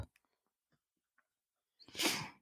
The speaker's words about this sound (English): This man is not snoring. Oh my God. I told him, you can stay in here if you, as long as you don't snore. Of course, he's snoring.